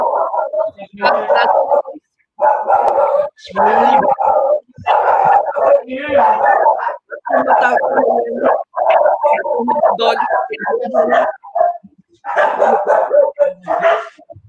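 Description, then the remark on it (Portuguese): Dogs bark loudly and almost nonstop, with rapid overlapping yaps and an occasional whimper, breaking off only in brief pauses. “Vamos acalmar os cachorrinhos, né?”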